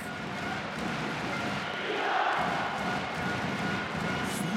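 A large crowd in the Olympic Hall roars steadily at a handball match between Iceland and Serbia, a dense wash of cheering and shouting that swells slightly midway and holds loud throughout.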